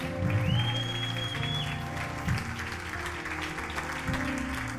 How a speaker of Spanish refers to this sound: Alguien debería darle un aplauso bien fuerte al Señor. Dele gloria a Dios.